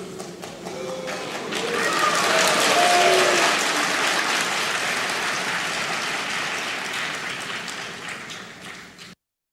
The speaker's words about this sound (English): First, interesting to hear the boos. That's how when, when Brando injected politics, the you, you hear boos.